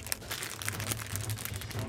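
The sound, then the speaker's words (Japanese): Continuous crinkling of a plastic wrapper being opened around a Shibukawa Maron Cream Shu chestnut cream puff, with dense, bright crackles and scattered sharper crunches holding a fairly steady, moderate level for about two seconds, with no talking. “袋から香りを嗅ごうとしますがまだ香りませんということで開けていきたいと思いますあいい開け心地ですね”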